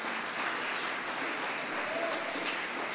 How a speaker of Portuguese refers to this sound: Já está tudo pronto, gente. Já está tudo pronto, pode aplaudir Jesus.